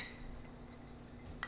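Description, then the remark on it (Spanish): A single bright clink of glasses of Tres Generaciones tequila touching in a toast rings out near the end, following a quiet stretch of low hum with a faint tick partway through. No one speaks. “Un tequilita tres generaciones de nuestros patrocinadores, gracias.”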